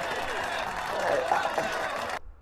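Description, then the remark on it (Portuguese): Audience applause, a dense, steady wash of many hands clapping with some voices mixed in, for a four-member group that took second place at a festival, holding an even loudness for about two seconds before cutting off abruptly. “vou dizer assim, até as palmas são merecidas porque nem a gente acreditava.”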